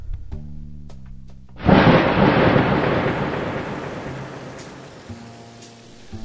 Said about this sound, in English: which may not sound like a long time, but when you're waiting in a cold car, trying not to be lulled by the irregular bossa nova the rain was beating on the car, it can feel like an eternity.